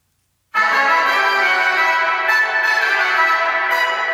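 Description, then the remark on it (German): A fully wet, dense reverb wash of a DIY underground garage impulse response recorded with a phone swells in after a brief silence and sustains steadily, a ringing, bell-like smear heavy in the midrange, with no voices. “Also ein schöner Hall, aber wir wollten ja unsere Tiefgarage nehmen, also unseren DIY-Hall.”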